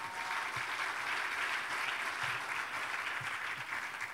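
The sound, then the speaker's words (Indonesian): Steady applause for God from a crowd, a dense, continuous patter of many hands clapping at an even loudness for several seconds, with no voices standing out. “Dengan tepuk tangan bagi Tuhan kita.”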